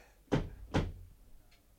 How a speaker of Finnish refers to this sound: Ai, ei tunnukaan olevan lukossa tämä ovi.